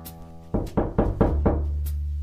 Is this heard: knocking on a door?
yes